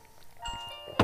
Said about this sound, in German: Das, ist der, das ist der Wecker,